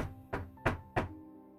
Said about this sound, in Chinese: 不到五分钟，我的门又被敲响了。